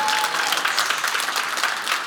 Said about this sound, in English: Two opportunities: a 9:30 and a, uh, come on. I thought I'd get a little bit more claps from everybody in the room.